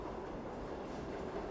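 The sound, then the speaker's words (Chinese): A subway train rumbles along in a steady, unbroken roar of wheel and track noise, with a faint whining hum running through it. The loudness stays constant throughout, and no one speaks. “汽车、地铁、”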